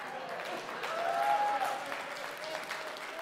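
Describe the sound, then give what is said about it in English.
A church audience claps steadily for a few seconds during a sermon, a dense patter of many hands swelling slightly in the middle. “Now, some of you are, are clapping for that because you do it once a week as you're coming to church.”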